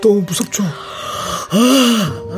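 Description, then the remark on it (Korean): After a short spoken question, someone lets out a long, drawn-out voiced yawn that rises and falls in pitch, fairly loud, lasting nearly a second. “아, 하품했어요, 지금?”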